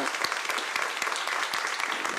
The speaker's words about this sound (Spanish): Vamos a darle un aplauso al Señor porque Él es bueno. Porque, pero ese aplausito está como para mí, ahí todo es ganado,